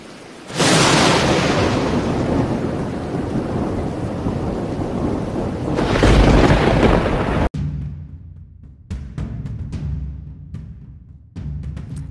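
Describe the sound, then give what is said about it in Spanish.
Heavy, torrential rain roars steadily with a swelling rumble of thunder, then cuts to a quieter stretch of rain with scattered sharp drips and patters. “cuando de pronto comenzó a caer una lluvia torrencial.”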